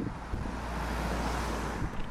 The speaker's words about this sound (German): Es kommt ein Auto. Ja, wie ihr seht, wir, wir sind hier gerade voll unterwegs und jetzt momentan eben an einer Straße, deswegen ist das nicht immer ganz so geil.